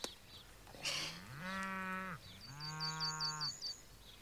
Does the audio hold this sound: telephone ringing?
no